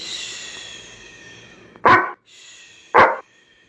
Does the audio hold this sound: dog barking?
yes